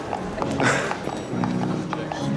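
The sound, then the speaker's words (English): A pony's hooves clop at a slow walking pace across a hard hotel floor, several sharp steps in an uneven rhythm, with muffled voices in the background. “You know, two guys and a horse walk into a hotel, this is a pony.”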